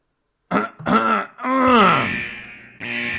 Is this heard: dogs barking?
no